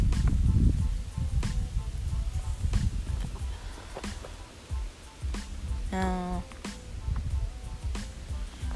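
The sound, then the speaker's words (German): Wind gusts buffet the microphone in a park with no cars around, a steady low rumble swelling and easing, with scattered light clicks and a brief spoken word partway through. “falls man den Wind gerade hört, ich, ich bin hier gerade im Park und da ist Wind, aber keine Autos, ja?”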